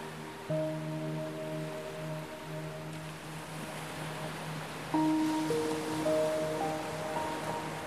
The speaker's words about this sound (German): Du ziehst deine Schuhe und Socken aus und gehst zum Wasser, um es dir über die Zehen schwappen zu lassen. Es ist ganz warm und die leichten Wellen, die dir über deine nackten Füße gespült werden, fühlen sich weich und angenehm an.